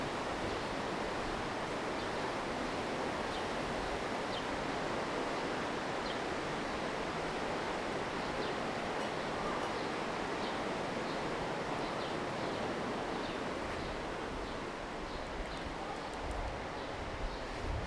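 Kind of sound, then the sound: nature, rushing river water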